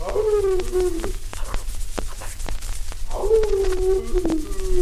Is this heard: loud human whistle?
no